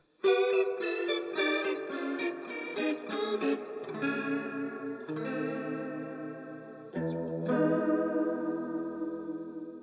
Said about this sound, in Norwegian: Det var Gibson Les Paul Custom.